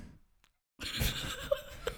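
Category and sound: household object, chair squeaking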